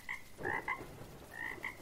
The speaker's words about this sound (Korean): 아, 개구리 소리에 저 개구리 어디서 울고 있을까요?